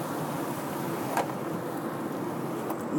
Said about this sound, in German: Ähm, ich hoffe, die Windgeräusche sind halbwegs akzeptabel. Ihr habt zumindest nur das Glasdach offen.